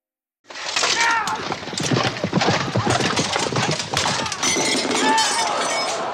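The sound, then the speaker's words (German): Busy, loud clatter of horse hooves and snorting mixed with sharp cracking and splintering wood, plus metallic clinks and a crowd of voices, sustained throughout. Two knights on horseback charge at each other with lances in a joust, and a lance shatters. “Wenn so zwei Ritter in einem Zweitkampf aufeinandertreffen, dann gehen die natürlich erst mit einer Lanze auf dem Pferd sitzend aufeinander los. Da kann dann so eine Lanze zerkrachen.”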